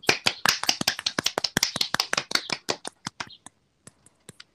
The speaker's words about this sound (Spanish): Aplauso, aplauso.